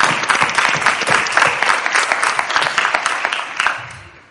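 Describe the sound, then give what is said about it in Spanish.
An audience claps steadily for a few seconds, a dense, lively patter of many hands that stays even and then starts to fade out near the end. “Y para empezar, me vais a permitir que os pida una cosa, me vais a permitir que os pida un aplauso por venir, por madrugar, por no atropellar a nadie, por aguantar los sonidos de Así que este aplauso es de nosotros para vosotros.”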